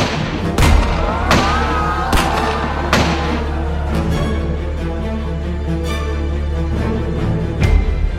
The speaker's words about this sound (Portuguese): Na primeira oportunidade, João Dantas disparou cinco tiros matando João Pessoa.